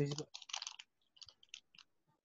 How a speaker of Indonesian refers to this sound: Kresek-kresek lah, kresek-kresek. Gitu. Oh ya. Hilang sinyal dia.